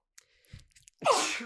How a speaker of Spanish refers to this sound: Salud, güey. A mí también me dan ganas de estornudar.